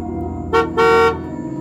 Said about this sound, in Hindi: काफ़ी लेट हो गया था इसलिए बस के ड्राइवर ने हॉर्न बजाया सब समझ गए अब तो चलने की बारी है